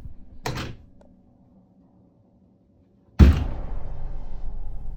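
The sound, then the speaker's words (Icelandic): A short mechanical rattle as a door handle goes down and then up, a pause of near silence, then a sudden loud bang as the door flings open, followed by a sustained rumbling noise. “og þá er bara eins og þessi tekið í hörðahónin og þið sjáuð á myndbandinu þið sjáuð actually bara hörðahónin fara neður og svo upp og svo bara opnast hún bara skelltist upp”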